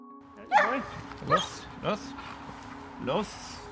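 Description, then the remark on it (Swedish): Protection dogs bark in four sharp, separate bursts with uneven gaps between them during protection dog training, loud over a faint steady background hum. “Han tränar skyddshundar håller i hundkurser och tävlar själv på elitnivå.”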